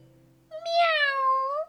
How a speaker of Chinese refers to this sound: 喵。” 猫应了一声